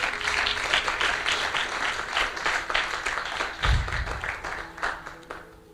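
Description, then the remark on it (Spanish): A church audience breaks into sustained applause for Christ during a sermon, dense overlapping clapping that holds steady for several seconds with a few louder swells and faint voices mixed in. “¿No le das un aplauso a ese Cristo maravilloso?”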